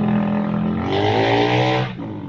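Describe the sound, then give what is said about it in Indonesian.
A loud motorcycle engine revs, its pitch rising and holding for a couple of seconds before cutting off as it passes by. “itu tadi ada yang ngedengar suara motor gak itu yang punya itu anak kolonel”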